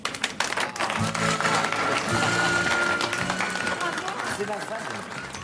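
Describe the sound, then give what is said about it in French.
A crowd breaks into sustained applause for the Reims women's football team, dense clapping filling the whole stretch at a steady loud level, with some voices and cheers mixed in beneath it. “Et cette équipe que je vais vous demander d'applaudir, ce sont les filles de Reims.”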